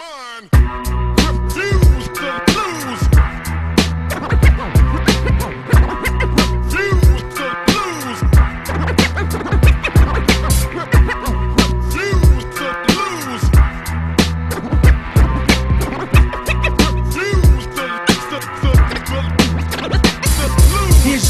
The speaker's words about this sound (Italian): E allora io lo lancio subito perché sono curioso di sapere e noi ci sentiamo questo bel traccione ora.